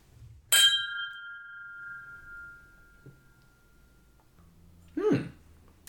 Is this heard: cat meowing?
no